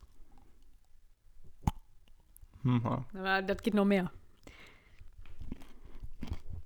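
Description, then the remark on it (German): A single sharp crack of someone biting into crunchy quinoa-studded dark chocolate close to the mic, then a short spoken phrase, followed by soft, irregular crunching as they chew. “Nee, ich, ich knacke in das ja, Mikrofon rein.”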